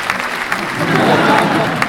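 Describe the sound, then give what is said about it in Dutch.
An audience applauds with a steady wash of dense, overlapping claps, fairly loud and continuous throughout, with a few sharper individual claps standing out. “Nou, eh, even applaus ook”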